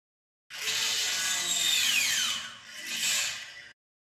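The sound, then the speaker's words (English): A sci-fi speeder bike engine whines loudly with a high, buzzing roar whose pitch sweeps downward as it passes, then surges briefly a second time before cutting off. No voices. “Oh, it's a speed bike.”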